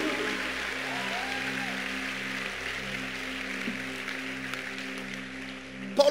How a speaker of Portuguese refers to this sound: Pode aplaudir ao Senhor por isso.